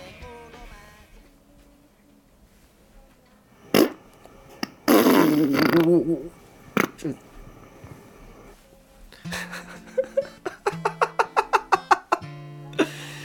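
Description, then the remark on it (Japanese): Someone imitates farts with their mouth, loud: a quick pop, then a long, wet, sputtering blast, followed later by a rapid string of short buzzy toots and one final squeak. “口おならでしたすごいクオリティ高いいや全員クオリティ高かったですよね”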